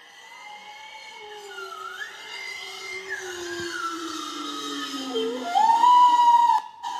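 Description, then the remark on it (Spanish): Bowhead whale song recorded underwater: long, eerie tonal moans that glide up and down with rich harmonics, ending in a louder, brighter whistle-like upsweep, heard alone without any talking. “Esas ballenas son una pasada. Esas ballenas boreales.”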